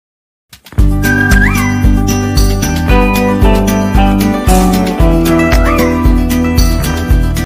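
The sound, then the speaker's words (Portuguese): A bright, catchy instrumental jingle with a steady bouncing beat and a whistle-like melody gliding over it, loud and continuous with no talking. “Voltando com a nossa musiquinha que gruda na nossa cabeça, igual aqueles carros de som”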